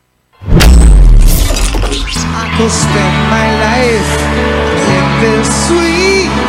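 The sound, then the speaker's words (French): A live band playing a medley at the Super Bowl final bursts in with a loud crashing hit, then settles into full, sustained music with steady chords and a melodic line gliding on top, loud throughout. “Tiens, un petit extrait du medley du Super Bowl.”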